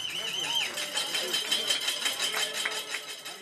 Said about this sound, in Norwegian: Alle gjestene slår med bestikket sitt på glass og tallerkener